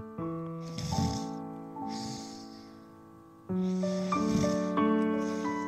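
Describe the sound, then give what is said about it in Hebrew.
A voice imitates a tiger's soft snoring: two drawn-out, gently rasping breaths like small breaths, with a hummed, throaty tone, fairly quiet, the second starting a bit louder. “הנמר התחיל לנחור. אלה היו חרחורים קטנים, כמו נשימות קטנות.”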